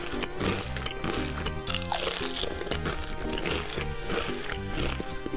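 Continuous crunchy chewing of chips, a dense stream of crackly bites and rustles with steady loudness, heard alongside a busy layer of background music or tones.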